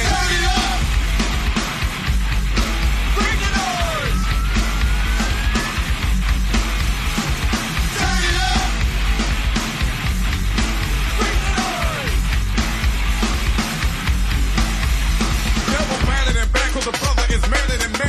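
A loud, dense rap metal track with distorted guitars and pounding drums, while a voice shouts and yells over the driving band throughout.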